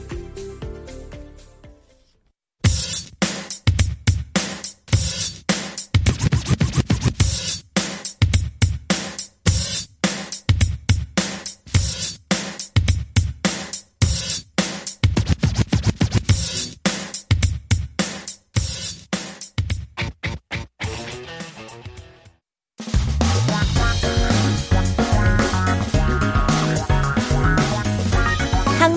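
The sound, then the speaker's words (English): A hip hop rock song plays loud, driven by a punchy, steady drum beat, then shifts into a denser, fuller section near the end. No one talks over it. “let's take a listen to our next song. It's by … and it's called ….”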